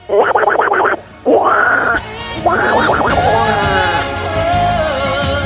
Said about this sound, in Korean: 물 속에서는 귀여운 오리 친구들이 한가로이 수영을 즐기는 중입니다. 도날드 닭 들어볼게요.